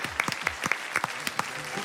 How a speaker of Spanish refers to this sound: Olé. Bueno, perfecto. Un aplauso para este fenómeno.